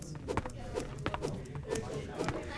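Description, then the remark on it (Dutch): Fists, a basic weapon in a video game, are swung: a steady series of quick, sharp swishes roughly every half second, over a low murmuring background bed. “Zo klinken mijn vuisten.”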